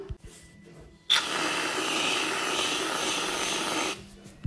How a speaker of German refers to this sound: Ähm, und jetzt mache ich die Sprühsahne.